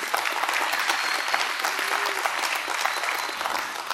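A crowd applauds steadily, a dense wash of many hands clapping at once, fairly loud and sustained throughout with no voices standing out.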